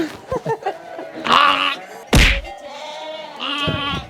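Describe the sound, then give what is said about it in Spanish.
A bottle-raised young lamb or kid wanting its bottle bleats repeatedly in wavering, nasal cries, with a sharp thump partway through and soft scattered rustles between the calls. “Mira, este se quiere biberón porque lo he criado con biberón.”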